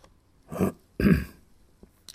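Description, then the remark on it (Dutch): Two short throat-clearing coughs from a butler in quick succession, the second slightly stronger, followed by a few faint clicks and quiet room tone. “De butler kuchte opnieuw.”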